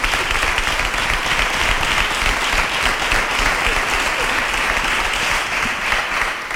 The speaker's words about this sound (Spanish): Pues vamos a dar un aplauso a los dos eméritos, ¿no? Que están por aquí ah. también.